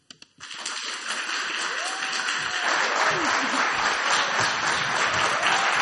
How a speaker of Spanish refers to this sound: Se escuchó el aplauso, varios asistentes aquí reunidos.